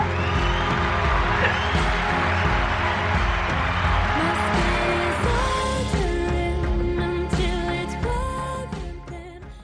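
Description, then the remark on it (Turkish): A crowd claps and cheers in a dense, steady roar over a musical backing with a thumping low beat. The noise thins out and fades toward the end. “Alkışları duymayı özledim gerçekten.”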